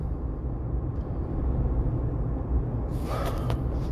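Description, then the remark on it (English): Steady low engine and road rumble fills the cabin of a moving car, with a brighter rush of road or wind noise swelling up near the end. No one speaks. “Cause like I said, I'm in a car.”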